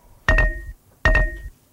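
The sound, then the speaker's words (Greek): Two sharp snaps of a tennis ball can lid popping open, about a second apart, each leaving a short hollow, slightly metallic ring that fades quickly. No one speaks. “ανοίγουμε, κάνουμε κλακ με το, το, το, το καπάκι από το κουτί με το παλάκι του τέννη.”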